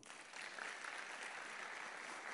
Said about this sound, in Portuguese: Amém? Aplauda ao Senhor.